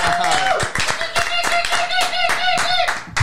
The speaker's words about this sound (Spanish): Porque tenemos un invitado especial. Fuerte aplauso para Esteban Ruiz.